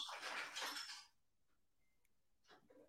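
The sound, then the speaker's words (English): A loud clatter of dishes crashing together in a sink, a dense burst of clinking crockery for about a second, followed by a few scattered, fainter clinks and knocks. “Did like everyone just break all their dishes in the sink?”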